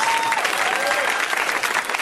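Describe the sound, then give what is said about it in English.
Steady, dense applause from an audience for two people who are sharing their jobs, a loud wash of many hands clapping at once with a faint whistle-like tone sliding through near the start. “Okay, say hi to all of my friends at Disney and uh, and maybe a round of applause for both of those people who are sharing their jobs.”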